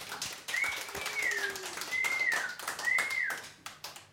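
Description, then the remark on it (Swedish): A burst of applause for the producer during the closing credits of the radio show Radio Totalnormal, dense overlapping claps with a few rising and falling whistles cutting through, steady in loudness for about four seconds before thinning out. “en applåd.”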